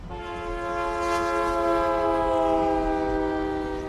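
A train horn blares in one long, steady chord for about four seconds, loud, with the low rumble of a passing locomotive underneath, as market stalls set up on the tracks are hastily cleared ahead of the oncoming locomotive.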